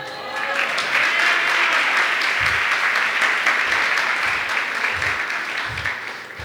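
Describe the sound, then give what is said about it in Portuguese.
A crowd applauds steadily, a dense wash of many hands clapping that holds for several seconds before easing off slightly at the end. “Eu acho que essa foi uma boa palavra, você devia ter aplaudido.”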